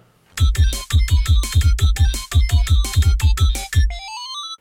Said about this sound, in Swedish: Vad fan, det ringer på dörren.